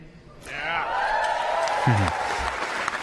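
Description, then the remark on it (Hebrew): An audience applauding steadily for a few seconds, a dense patter of clapping with some cheering voices rising through it, fairly loud and sustained throughout. “טוב, לכל מחיאות הכפיים, מספר את מה צפוי ועל ההתרגשות הגדולה כמובן.”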